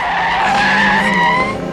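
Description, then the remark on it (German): A loud tire screech as a car skids hard after Skinny jumps directly in front of it, the high squeal sliding in pitch for nearly two seconds before easing off, with no voices over it. “Skinny ist direkt vor das Auto gesprungen.”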